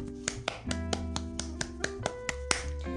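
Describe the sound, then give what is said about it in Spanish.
Applause for Guatemala, marking the bicentennial of the country's independence, from what sounds like a single pair of hands: about a dozen sharp, evenly spaced claps over a steady sustained tonal background, with no voices. “Así que, sí, un aplauso para Guatemala.”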